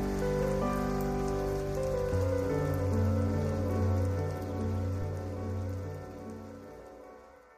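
Steady rain pours down in a continuous hiss, with sustained low tonal notes humming beneath it and no voices, gradually easing slightly toward the end.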